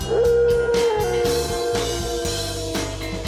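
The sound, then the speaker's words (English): Sled dogs howl in a long, sustained, wavering cry that rises and then holds steady, loud, over a steady rhythmic musical beat with no talking. “Oh well, guess it's back to the old sled dog training there, Vlad.”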